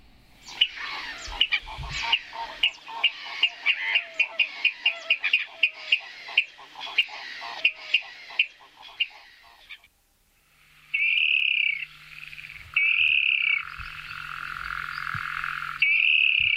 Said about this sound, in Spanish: Bueno, sonido bastante espectacular. muy agudo. ¿eh? eh, mira, mira, mira estos sonidos de alarma como los primeros, el segundo reclamo, el del medio que escuchamos que suele hacerlo de noche. Esta ave que seguimos con las rálidas.